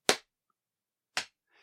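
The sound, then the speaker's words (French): Two sharp, loud snapping clicks about a second apart, crisp, made by a person's mouth imitating the quick clack of swifts' beaks snapping shut as they catch flying ants at full speed. “Et en fait, c'est le bruit de leur bec. Mmh, qui claque.”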